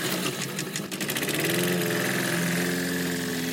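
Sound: lawn mower engine starting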